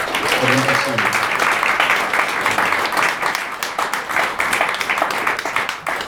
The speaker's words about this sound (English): please give me a round of applause you must stand up